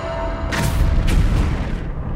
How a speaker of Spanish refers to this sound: Perseo 33, ¿sentiste la explosión?